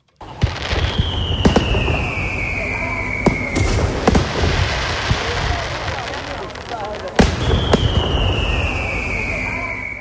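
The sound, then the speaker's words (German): Fireworks and firecrackers go off repeatedly, sharp loud bangs punctuating a constant crackle, with two rising whistling rockets streaking upward; murmuring voices run faintly underneath. “Es ist so viel geklüpft und getatscht worden wie seit Jahren nicht mehr.”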